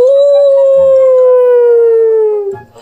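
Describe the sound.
A voice imitates a wolf howl: one long, loud howl held for over two seconds, sliding slowly downward in pitch before breaking off abruptly.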